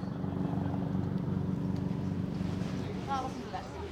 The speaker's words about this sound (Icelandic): Það heyrist hérna í þyrlu fljúa yfir.